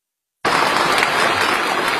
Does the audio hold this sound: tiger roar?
no